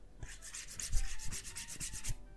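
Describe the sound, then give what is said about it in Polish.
Fingers rub back and forth over the textured back of a Nexus 4 phone, making about a dozen quick scratchy strokes in a steady rhythm, with no voices. “był taki telefon kiedyś Nexus 4, jest, muszę powiedzieć, bardzo fajne, ale jego faktura taka.”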